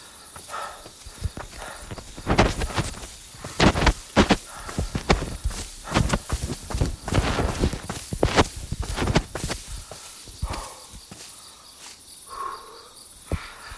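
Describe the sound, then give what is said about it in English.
Footsteps swish and crunch through tall grass among trees in a steady, uneven rhythm as a person walks with a phone flashlight, fading out near the end, while crickets chirp continuously in the background. “I'm walking into. It's, it's, it's not quite forest, it's, it's more like high grass, trees.”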